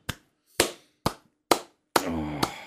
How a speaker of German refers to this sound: Dafür möchte ich dir kurz einen Applaus geben.